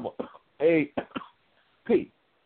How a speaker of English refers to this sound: had to cough when I could not uh, say it